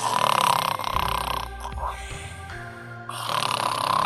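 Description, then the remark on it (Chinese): A voice imitates snoring with rough, rumbling breaths, then shifts into squeaky and howling vocal noises; the sounds are loud and continuous with a quieter stretch in the middle. “呼噜呼噜呼噜，吱吱吱吱，嗷呜嗷呜嗷呜。”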